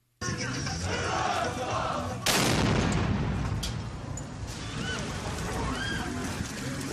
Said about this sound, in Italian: Quello che abbiamo sentito è il sonoro dell'attentato costato la vita a tre persone, oltre al ferimento di una decina di altre, almeno a Kharkiv, nel nord-est dell'Ucraina.